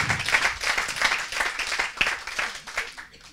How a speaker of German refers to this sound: Ja, äh, ja einen Applaus, wirklich.